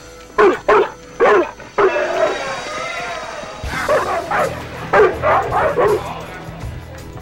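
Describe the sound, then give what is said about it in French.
Six Doberman dogs bark in sharp bursts, then whine and whimper briefly before a second flurry of rapid barks and yips rises over a low rumbling background. “Dresser six Dobermans à attaquer à leur place.”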